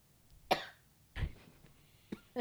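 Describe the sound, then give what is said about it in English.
A woman's coughing fit: four harsh, loud coughs in an uneven sequence, the first two spaced apart and the last two coming quickly together, with no talking. “Cough attack.”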